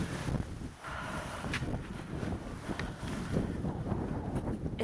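Steady outdoor wind roars and buffets the microphone, with low rumbling gusts filling the whole clip and no voices, during snowfall on 22 November.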